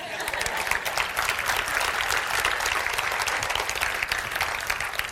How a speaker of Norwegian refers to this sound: Takk for jobben din. Gi en applaus.